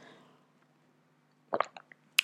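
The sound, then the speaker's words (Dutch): Someone sipping tea: after a quiet pause come a few short, wet slurping sips in quick succession, followed by a brief sharp click. No talking. “Even een slokje thee voordat ik zo meteen eh, een droge keel krijg.”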